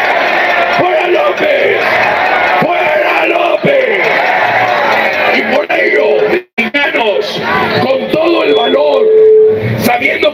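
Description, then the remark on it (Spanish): A large crowd of Mexicans shouts and chants slogans together, such as "¡Fuera López!", loud, with many overlapping voices filling the whole stretch and only a brief dip in the middle. “Somos los mexicanos los que gritamos, ¡Fuera López!”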